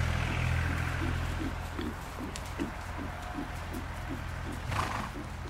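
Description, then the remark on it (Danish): A horse's hooves clip-clop in a steady, even rhythm, and a short neigh breaks through near the end. No one speaks. “så er man meget mere sådan uh, committed til hesten, fordi man sidder nede i sadlen, man kan ikke sådan lige glide bagud.”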